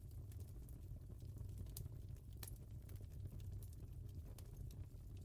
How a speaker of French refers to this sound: Car lorsque l'on regarde un feu brûler, il y a comme une part plus primitive à l'intérieur de nous qui se sent comme rassurée, englobée, sécurisée, protégée.